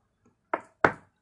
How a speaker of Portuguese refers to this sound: Bati na porta.